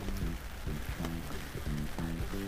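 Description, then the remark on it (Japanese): Heavy rain pours down steadily in a dense, continuous hiss that stays loud throughout, with a low, pulsing rumble beneath it and no voices. “雨音結構激しいけど大丈夫かなノイズね”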